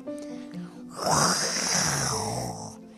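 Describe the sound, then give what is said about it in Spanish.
A tiger roars once, loud: a deep, rasping growl that bursts in suddenly, holds for nearly two seconds, then trails off. Faint tonal sounds come just before it. “De repente escuchó un gran rugido aterrador.”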